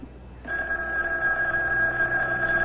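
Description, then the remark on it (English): After a brief moment of quiet, a telephone starts ringing with a steady, sustained electronic trill that is fairly loud, and it continues unbroken to the end with no voices. “Why don't you answer the phone?”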